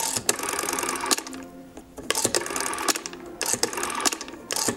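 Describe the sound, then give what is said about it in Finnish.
An old rotary telephone dial being turned and released several times, each spin a burst of rapid mechanical whirring and ratcheting clicks, with no one speaking. “Tässä tulee tämä tuttu kuulomuisto sieltä entisiltä ajoilta.”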